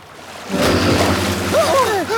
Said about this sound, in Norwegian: Når du synger nå, starter flåten å gå.